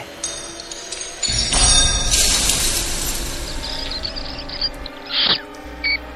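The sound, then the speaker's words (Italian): A metallic clatter and rush of scrabbling noise, with high-pitched squeaks and chirps scattered over it, fitting rats spilling out of a cage; a few sharper squeals close the sequence. No one speaks. “Quel pazzo ha liberato i topi!”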